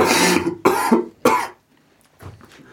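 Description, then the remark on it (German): Three loud coughs come in quick succession, each a harsh burst, followed by a short pause and a quieter, murmured vocal sound. “Hat einen gewissen Hustenreiz für mich.”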